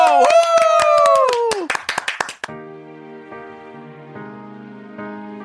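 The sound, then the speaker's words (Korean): A couple of people clap rapidly and cheer with rising-then-falling whoops for about two seconds; then the clapping stops abruptly and soft, sustained music begins. “자 박수와 함성요.”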